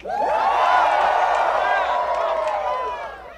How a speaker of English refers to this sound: Cheer if I fucked you.